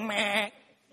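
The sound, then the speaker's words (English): A single loud, wavering, nasal goat bleat lasting about half a second, then fading into quiet background noise. “If you ever get a goat, name him Voldemort.”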